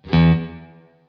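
A single electric guitar note or chord played through an effects pedal that is being tested rings out loud, with a bright, slightly processed tone that decays smoothly over about a second. No one speaks.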